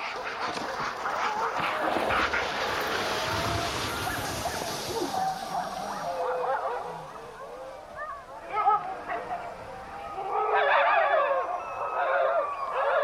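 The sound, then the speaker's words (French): A pack of sled dogs barks and yelps together in a dense, overlapping chorus as two hunters' sled teams set off across the sea ice, steady, with sharper bursts of excited barking toward the end. “Les chiens qui n'ont pas été choisis pour faire partie du voyage le regardent s'en aller jalousement.”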